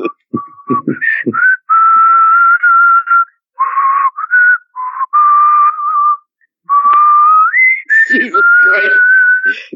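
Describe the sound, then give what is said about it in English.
A person whistles a short tune loudly, with sustained notes that slide up and down, broken by a few brief exclamations and breathy bursts. “Stop, don't actually whistle Here we go.”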